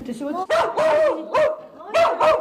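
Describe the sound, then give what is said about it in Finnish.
A small dog yaps excitedly at home in Myllypuro, Helsinki, in a quick series of five or six sharp, high barks with a whiny edge, loud, with brief gaps between bursts. “Nyt tulee räksytystä heti.”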